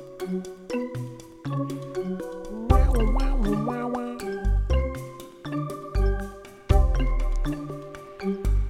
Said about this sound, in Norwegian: Sånn bjelle, sånn bjeller. Elsker bjeller. Ja, jeg er veldig glad i bjeller. I hvert fall til det spillet der. Der er det mye fine bjeller.